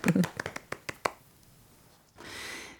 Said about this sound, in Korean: 예, 우리가 큰 더큰 박수로 격려를 해드려야